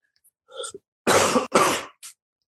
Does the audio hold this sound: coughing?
yes